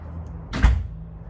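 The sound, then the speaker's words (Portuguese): A single door shuts with a brief, muffled thud midway through, over a low steady background hum with no one speaking. “Quando eu fechar a porta, você já pode falar um palavrão, tá bom?”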